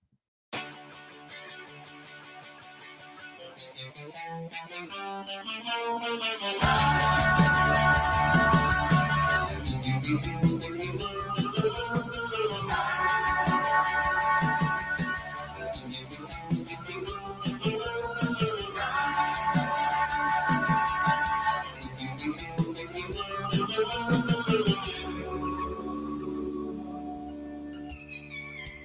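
A rock cover song opens with a few seconds of quieter melodic instruments, then a full band crashes in loud and driving, with steady drums, heavy low end and a sung melody throughout.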